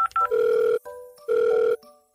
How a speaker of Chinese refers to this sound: 电话嘟嘟响了几声后，终于有人接听了。